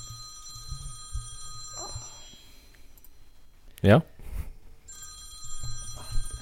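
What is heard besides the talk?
telephone ringing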